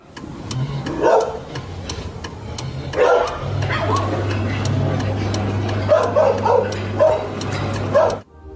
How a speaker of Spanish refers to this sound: Un suceso también importante que resaltó el testigo tiene que ver con las mascotas de los vecinos, que comenzaron a ladrar insistentemente, posiblemente debido a la presencia de las luces en esos momentos.